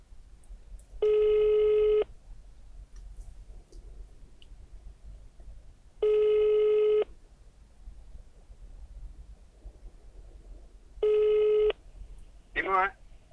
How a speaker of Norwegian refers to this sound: Så da ringer vi Simon som førstemann